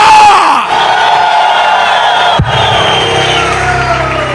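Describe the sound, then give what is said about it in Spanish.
A large audience roars in a sustained victory cry, loud, many voices shouting together over a brief sharp break before the crowd noise continues unabated. “Oigo un grito de victoria.”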